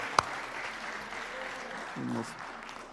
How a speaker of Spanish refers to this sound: Vamos a darle un aplauso a nuestro Dios.